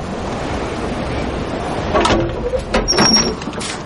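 A woman opens the door of a house over a steady hiss of background noise, with a few clicks and knocks from the latch and a brief high squeak as it swings.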